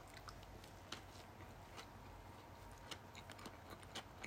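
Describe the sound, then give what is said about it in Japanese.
Quiet chewing of a ham sandwich with a mayonnaise-like dressing: soft, moist smacks and small crunchy clicks at an uneven pace over a faint background hush, with no talking. “はい、咀嚼音がしますので、えー、ご了承ください。”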